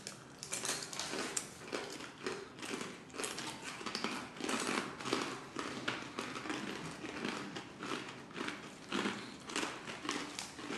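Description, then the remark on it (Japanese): Loud crunching of crispy plain-flavored shrimp crackers (ebisen), a steady stream of sharp, brittle bites and chews repeating irregularly with no talking. “こういうなんかエビせんみたいなちょっとじゃあプレーン味いただきますよ俺はのせプレーン味でもねちょっとピリってするからね”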